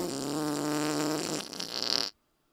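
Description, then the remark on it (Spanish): A voice imitates a deep, bubbling fart: a sustained low rumble with wet, fluttering texture lasting about two seconds, rising to a hissy sputter before cutting off abruptly. Fairly loud. “este vato disfruta del sonido que describe como pedos profundos y, burbujeantes.”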